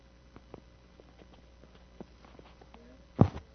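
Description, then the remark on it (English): Light, irregular tapping sounds scattered through quiet, followed near the end by a sharper, louder knock and a brief rattle. “Something's making a tapping noise.”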